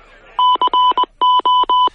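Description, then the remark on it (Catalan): A phone-dialing connection sound effect used by a broadcast to signal its live connections with reporters: seven quick electronic tones in a steady, clipped rhythm, each a loud two-pitch beep separated by short gaps, with no talking. “Ah, ah, no, espereu, espereu, que aquest efecte és el de les connexions.”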